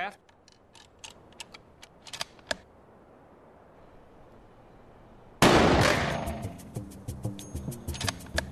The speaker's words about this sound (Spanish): Conforme la bala golpea el metal, se convierte en metralla que se extiende dándole a todos los globos.